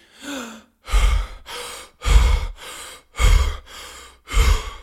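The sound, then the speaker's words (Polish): A voice imitates Kussmaul breathing, the deep, rapid breathing of a patient with ketoacidosis: seven loud breaths alternating inhale and exhale in a steady, heaving rhythm with brief gaps between, no talking. “Pacjent oddycha głęboko i szybko, ma ekstremalnie wysoką wentylację minutową.”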